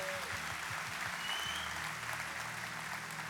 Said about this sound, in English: One more time, I know you clapped a lot. Can you let all of our ladies know how much you appreciate them? Thank God for them.